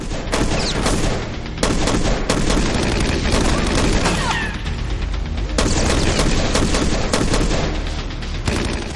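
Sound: pistol gunshots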